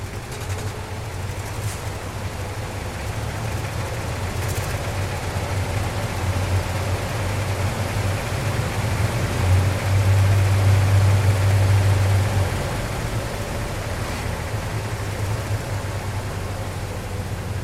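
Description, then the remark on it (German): A steady, rumbling diesel tractor engine idles, its low drone rising into a louder rev for a few seconds before settling back to a constant idle, as farmers start, stop and rev tractors in a concert for twelve tractors. “Die Landwirte Motoren starten, wieder ausstellen oder volles Rohr Pedale durchtreten lässt, mal als Solisten, mal im Chor.”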